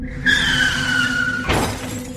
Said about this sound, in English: You've crashed the minivan into a telephone pole.